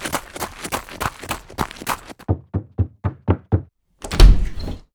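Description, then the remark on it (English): A house's front door bursts open with a loud bang as someone runs breathlessly through it. The bang comes after a busy clatter and a quick run of sharp, evenly spaced knocking thuds. “I heaved breathlessly as I burst through the front door.”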